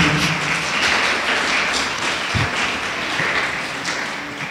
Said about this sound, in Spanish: ¿Le puedo dar un aplauso al reino de los cielos, hermanos?